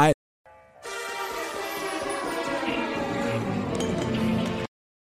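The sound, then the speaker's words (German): Champagne and then coffee are poured steadily into a glass for about four seconds, a dense gurgling rush that grows slightly louder, preceded by a brief click and a short tonal sound. “Du hast zuerst den Champagner eingeschenkt und dann den Kaffee.”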